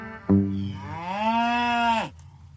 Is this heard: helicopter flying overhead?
no